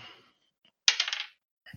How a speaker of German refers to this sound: Dann würfel ich jetzt, nehme ich jetzt meinen Zehner.